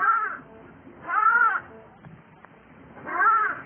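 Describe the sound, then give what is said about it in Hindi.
A sheep caught in thorns, its wool tangled, bleats three times on seeing the shepherds, wavering calls separated by short pauses, clear with no talking around them. “जब शेर ने गड़रियों को देखा तो बड़ी प्रसन्न हुई उसने एक बार फिर आवाज दी”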